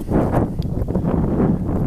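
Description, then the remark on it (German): Wind buffets the microphone in a loud, continuous low rumble that surges and dips slightly over a couple of seconds, with no one speaking. “jetzt kommt der Wind wieder”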